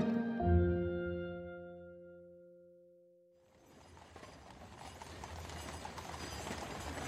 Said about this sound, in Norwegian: Og utenfor Buckingham Palace drar hester på kanoner som snart skal avfyre salutter til ære for dronninga deres.